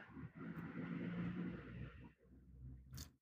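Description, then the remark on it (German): A silver Audi and a black Renault drive past, a steady low rumble of engine and tyres that holds for about two seconds, then fades, leaving quieter traffic noise and a brief hiss at the end. “Jetzt ein silberfahrener Audi und ein schwarzer Renault.”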